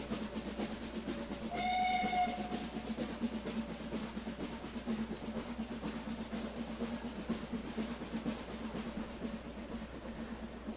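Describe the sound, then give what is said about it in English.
A train engine rumbles and clatters steadily throughout, fairly loud, with a short whistle blast early on as the train slows to pull into the station in Arkham. No one speaks. “the time goes goes quietly, and you can hear the sounds of the engine changing as it slows to pull into the station in Arkham.”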